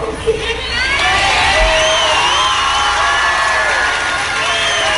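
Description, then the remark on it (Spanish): A large concert crowd cheers and applauds a singer in a loud, sustained roar, with high shouts and whoops rising over the steady wash of clapping and voices. “Oye, el apoyo de la gente, ¿no? que en vez de reprochárselo, se, lo, se lo aplaudió.”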